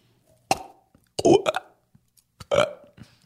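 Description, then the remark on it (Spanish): A person makes three loud, croaking burp-like vocal sounds, spaced about a second apart, each a short rough gurgle, imitating how they imagine starfish sound. “Esta es como yo creo que se escuchan las estrellas de mar.”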